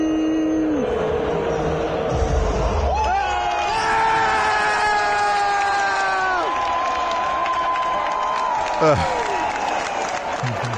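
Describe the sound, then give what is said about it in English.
A loud crowd cheers and roars continuously as a competitor is eliminated, with sustained rising and falling whoops and shouts carrying over a dense wash of applause-like noise from start to finish. “now, I'm not a big fan of cheering for for like somebody's mishap.”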